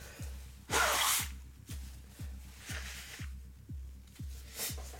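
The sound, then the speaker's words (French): Someone blows their nose in a few hissing bursts, the first loudest and longest, with a steady low rhythmic thumping throughout and no talking. “du coup, cette semaine, je me mouche pas apparemment. je fais des bruits bizarres du coup quand j'expire du nez.”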